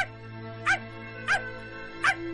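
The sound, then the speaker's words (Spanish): A small dog, Toto, gives three short, high-pitched yips, spaced roughly half a second apart, over a steady low background hum; the dog wants food. “¿Y el perrito qué quiere? El perrito quiere comer.”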